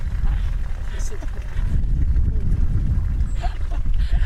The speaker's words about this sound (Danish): Så der kan man altså høre, at kærlighedsfaktoren kan være, og så nu er der lige en hest og tisser i baggrunden. Skal vi lige høre det? Real life.